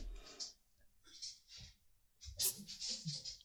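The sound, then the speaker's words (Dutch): The claws of Ollie, a small dog, tap lightly on a hard floor, a handful of quiet, irregular clicks spread across a few seconds, with faint rustling and low background noise between them. “Hoor je dat? Hoor je al getik?”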